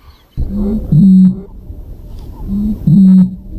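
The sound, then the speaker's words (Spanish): The Bird of the Year 2024 gives a deep, booming call twice, each a short low note rising into a longer sustained hum, about two seconds apart, loud with no talking over it. “la actual AVE del año 2024.”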